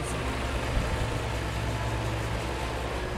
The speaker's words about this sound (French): À la fin de la chanson, un craquement sinistre ébranle la maison et une énorme pelle mécanique surgit derrière la scène dans un fracas de bois éclaté.